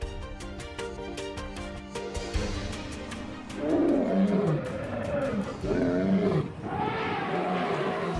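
Savanna ambience with big cats letting out deep, rumbling roars in three drawn-out bursts, loud, over a steady rhythmic tapping backdrop that begins alone before the roaring starts.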